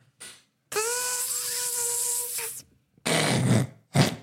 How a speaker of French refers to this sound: C'était une abeille.